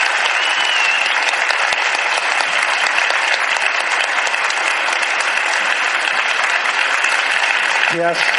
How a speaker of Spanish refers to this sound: Hoy por ser día de tu santo te venimos a cantar. Un aplauso para...